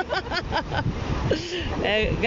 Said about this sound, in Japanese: 波の音が聞こえるでしょうか今休憩中でございます。